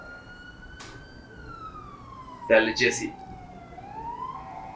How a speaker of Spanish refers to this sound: Ahí viene otra sirena. Ajá. Dos. Segunda.